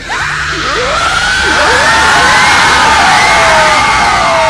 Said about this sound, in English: Suddenly, the Aleya appeared, her eyes glowing with fury. She let out a blood curdling scream, and the ground shook beneath their feet.